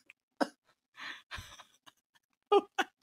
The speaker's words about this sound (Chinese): 你知道你刚刚在咳嗽，你这肉都在抖吗？